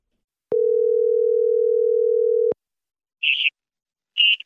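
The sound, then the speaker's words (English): A telephone ringing tone sounds once as a steady two-second hum, followed by silence and two short, high-pitched electronic chirps, as a phone call to the caller's mother connects. No one speaks. “And now you're going to hear that phone call.”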